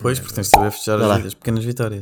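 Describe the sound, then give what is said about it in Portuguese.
A single sharp cork pops out of a bottle partway through, loud, while a person keeps talking over it. “Oi, saiu a rolha.”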